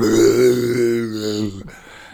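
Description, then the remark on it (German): A person voices a deep, growling baritone monster roar, one sustained guttural bellow lasting over a second before trailing off into a breathy rasp, loud. “der Ballrock, der hat einen tiefen Bariton, wenn der knarschig ist und brüllt”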